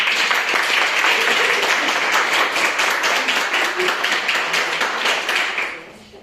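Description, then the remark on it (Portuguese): An audience applauds Jesus together in a dense, steady burst of many hands clapping, sustained and loud for several seconds before tapering off at the end, with no voices over it. “Vamos aplaudir a Jesus.”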